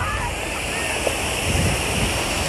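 Sea waves wash steadily outdoors on a very hot day under a constant rush of wind buffeting the microphone, a dense, fairly loud roar that holds without pause, with a small splash rising briefly in the middle.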